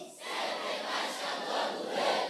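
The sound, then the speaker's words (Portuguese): A crowd shouts together in a loud, sustained roar, a battle cry meant to make the wall fall, the massed voices swelling and holding steady for a couple of seconds. “No urrar o muro vai cair.”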